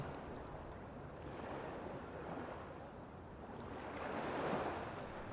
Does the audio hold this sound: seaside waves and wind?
yes